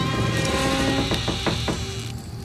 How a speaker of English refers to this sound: The door opened inward with a long, screeching, metal on metal creak,